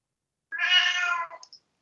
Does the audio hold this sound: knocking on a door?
no